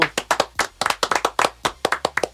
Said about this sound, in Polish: E, pierwszy temat, który nas nurtuje, a czyli nurtuje, e, o którym musimy powiedzieć i, i pochwalić i bijemy wielkie brawa.